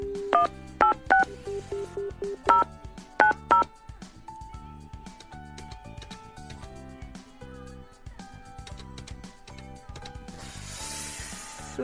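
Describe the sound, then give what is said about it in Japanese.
A phone number being punched in on a mobile keypad to call a mobile phone: around ten short, clear dual-tone beeps in quick, uneven bursts, then a quieter stretch of line hum and faint electronic tones. “携帯電話に電話をしてみます、えー、お仕事かなそうなりますよね。”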